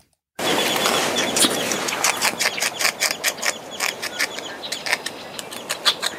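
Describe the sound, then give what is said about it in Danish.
Beaver sounds: a steady run of rapid scraping, crunching bursts, like gnawing, over a soft rustling background, growing more distinctly rhythmic toward the end. “og det her, det er lyden af bæver.”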